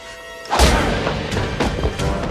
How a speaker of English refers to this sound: uses his punching bag and like hits one of the bad guys with it